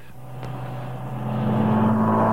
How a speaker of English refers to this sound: you're listening to a $250,000 experimental car, hand built by Ford.